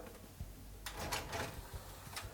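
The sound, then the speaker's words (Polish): The drawer of a five-disc CD changer, located at the very bottom of the unit, slides with a brief mechanical whir and rattle, followed by a soft clunk; quiet, with no talking. “Zmieniarka pięciopłytowa mm, jest zrobiona na zasadzie szuflady”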